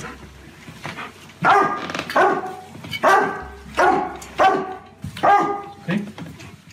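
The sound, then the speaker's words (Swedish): A cadaver dog named Devil, trained to detect the scent of corpses, barks loudly and insistently while marking a bed in a bedroom, a series of about eight sharp, ringing barks in a quick, uneven rhythm, with short whimpery gaps between bursts. “Och det dröjer inte länge innan Devil börjar skälla kraftigt.”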